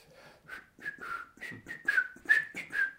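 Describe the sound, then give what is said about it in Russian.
A man whistles a short, jaunty tune alone as he walks off to pace out a stage, about eight clear notes in quick succession, rising and falling in pitch, moderately loud with slight breathiness between notes. “Тогда я отвернулся и, и э, пошел, насвистывая мерить сцену.”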